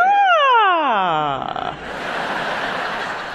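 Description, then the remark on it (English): A singer imitates a siren as a vocal warm-up, with one smooth, loud glide that falls from high to low pitch over about a second and a half, then trails into breathy, noisy sound. “Can you do a siren for us?”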